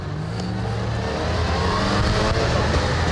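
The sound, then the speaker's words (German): The two-stroke engine of a small two-door Trabant car, built in Zwickau, East Germany, revs steadily and loudly, its buzzy, rattling drone rising slightly in pitch, with no voices present. “Am 30. April jenes Jahres endete die Produktion dieses kleinen zweitürigen Zweitakters.”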